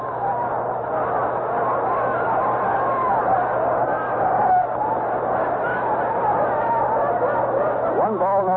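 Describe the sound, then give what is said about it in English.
A capacity crowd at an Oakland A's baseball game in Oakland murmurs and chatters in a steady, dense roar, with scattered laughter rising from the mass of voices and a faint low hum underneath throughout. “And we have a capacity crowd here in Oakland, and we have an enthusiastic crowd.”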